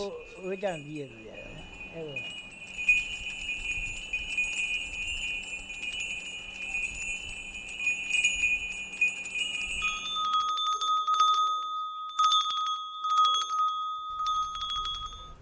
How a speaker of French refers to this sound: Moi, j'aime les sons les plus doux. Ces petites clochettes, par exemple, elles ont un son très doux. C'est ce que tout le monde aime. C'est ce qui se vend le plus.